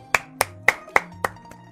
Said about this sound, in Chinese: 来，掌声欢迎一下，掌声欢迎一下。